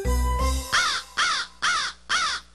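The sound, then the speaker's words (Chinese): A small black bird standing on a power-line frame caws four times in a steady rhythm, each call harsh, raspy and loud. A short low, tonal sound comes just before the first caw, and no one speaks. “只见一只小黑鸟正站在拉电线的架子上。”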